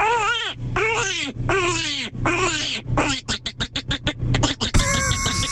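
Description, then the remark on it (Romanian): A person imitates a duck, starting with several drawn-out, wavering quacks and then a quick run of short, clipped ones, all fairly loud. “Asta e rață.”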